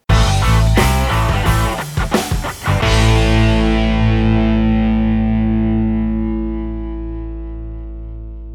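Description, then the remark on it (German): An intro jingle: a short, loud burst of distorted electronic music with rapid rhythmic hits for about three seconds, then a sustained droning chord that slowly fades out. No voices. “Jetzt geht's los mit dem Intro zum Podcast.”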